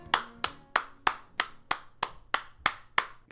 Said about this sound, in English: Uh, clapping. Yeah, that was clapping.